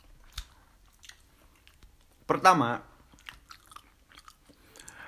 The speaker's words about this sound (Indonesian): Jangan lo diambil piringnya ntar aku masih ngunyah.